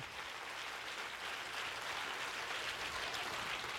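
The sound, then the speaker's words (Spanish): An audience applauds steadily, a dense, even wash of clapping that holds at a constant level for several seconds with no voices over it. “Si ese es el aplauso, dése lo mejor al Señor.”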